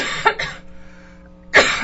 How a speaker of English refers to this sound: this cough is going great. Really great.